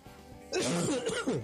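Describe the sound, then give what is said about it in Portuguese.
A man clears his throat with a rough, gravelly rasp lasting about a second, loud after a brief quiet moment, with no speech. “que tá tossindo igual um cachorro velho hoje.”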